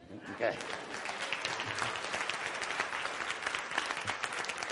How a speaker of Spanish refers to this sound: Eso merece un aplauso.